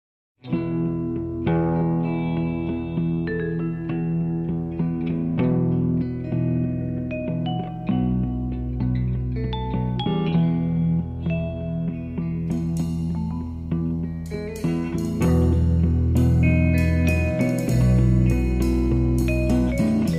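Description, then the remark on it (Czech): A music interlude with shimmering, reverb-drenched synth tones over a steady deep bass, chords shifting every few seconds at an even, fairly loud level, with no voices throughout. “O těch skrytých dluzích, a, a tož kreditní karta určitě je, tomu se rozhodně musíme ještě vrátit, ale nejprve bych fakt trochu odvětral nějakou hudbou.”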